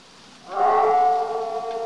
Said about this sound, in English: But it's almost like a warning, right? It's almost like this call, don't trifle with this. And it doesn't sound like a regular wolf. It does sound monstrous. That thing is mad.